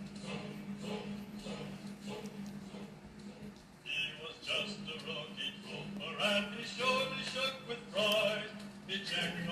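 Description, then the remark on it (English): Voices sing the Screaming Eagles paratrooper fight song "Blood Upon the Risers" at a steady marching pace, fairly loud, over a constant low hum running beneath the whole passage. “one of my favorites, the uh, Screaming Eagles fight song.”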